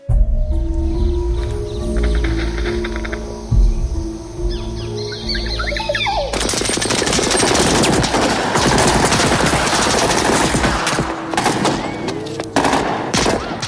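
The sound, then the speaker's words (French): A low droning hum gives way after about six seconds to loud, sustained machine gun fire as the national guard machine-guns the streets, rapid bursts rattling on continuously with faint bird chirps in the background. “En face, la garde nationale riposte en mitraillant les rues et en bombardement les campagnes.”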